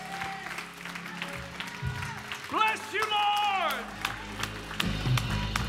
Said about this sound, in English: let's just stand to our feet and give him a standing ovation. You know he's worthy of our praise right now.